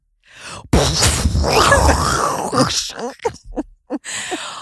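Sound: voice imitating an explosion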